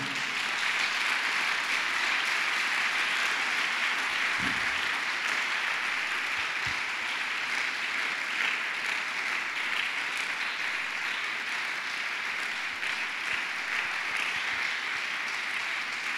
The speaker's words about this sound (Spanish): Entonces, sin levadura, apláudale al Señor. Voy a aplaudirle más fuerte.